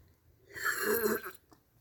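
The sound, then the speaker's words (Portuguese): A person drinks cold water: one throaty gulping swallow lasting under a second, followed by quiet. No talking is heard. “vou beber água e vou ter que fazer barulhinho porque assim está a passar agora um caminhão e eu não quero que vocês ouçam um caminhão, vão-me ouvir a beber água.”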